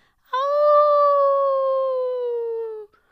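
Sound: dog howling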